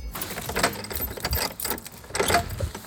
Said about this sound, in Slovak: Počujete ten kľúčisko? Tak, vchádzame dnu.